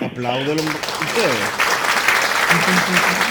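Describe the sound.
A crowd applauds steadily for a few seconds, a dense, hissing wash of clapping, while voices call out and talk over it.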